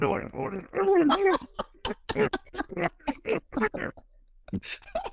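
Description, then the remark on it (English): A man's voice imitates a woman's guttural, demonic growl, starting with a low, raspy snarl and breaking into a string of rough, choppy grunting bursts, fairly loud. “And she growled at me like,”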